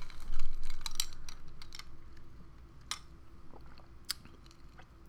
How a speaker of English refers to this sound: Hold on, I need to take a sip.